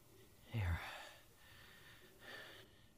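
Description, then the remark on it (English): Labored, gasping breaths from a person stuck in a pitch-dark, windowless enclosed space: a sharp, heavy intake of air followed by strained, raspy breathing with a second ragged gasp near the end, quiet. “No wonder I'm having trouble breathing.”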